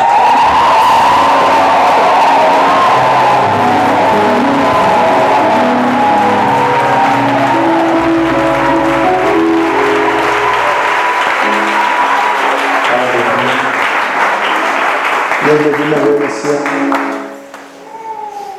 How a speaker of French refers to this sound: Maintenant, je veux qu'on acclame Dieu pour notre boss, c'est-à-dire le boss des boss. C'est le Saint-Esprit, acclame Dieu pour ça.